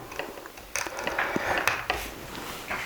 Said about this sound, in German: Und ja, hier haben wir schon mal den Kameraadapter, sehr schön. Den machen wir mal hier ran.